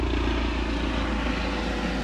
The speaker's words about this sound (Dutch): Ja, we hebben hier in de natuur ook uh, een heli.